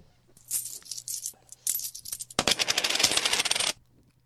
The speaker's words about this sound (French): balancer sa thune sur le comptoir sans regarder